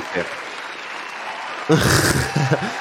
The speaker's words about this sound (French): On peut applaudir. Le quiz. On peut, euh, on peut applaudir.